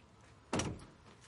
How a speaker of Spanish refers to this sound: sale del salón y cierra la puerta.